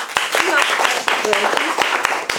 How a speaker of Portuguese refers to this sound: Então, agradeço a participação de vocês. Uma salva de palmas.